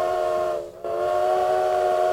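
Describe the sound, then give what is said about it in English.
A loud steam train whistle sound effect blows with a steady, chord-like tone, dipping briefly for a moment before resuming and holding strong to the end, with a faint hiss beneath. “why don't we kick off this Star Wars themed episode 4 of Dishing It with listener train mail?”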